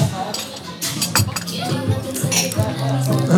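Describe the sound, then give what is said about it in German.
A glass of coffee is set down with a few bright clinks of glassware and cutlery over a murmur of background voices and café clatter. “da ist er, der Kaffee.”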